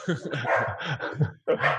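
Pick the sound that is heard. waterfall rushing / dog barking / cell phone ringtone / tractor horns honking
dog barking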